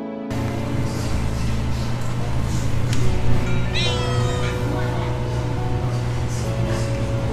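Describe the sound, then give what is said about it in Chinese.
A cat at Dongmen Market meows insistently over a steady background hum, with a rising, wavering cry standing out midway and softer mews around it; no one speaks. “在角落的猫咪一直盯着我这个外来者看，然后一个不注意就跳到我面前，仿佛说着。”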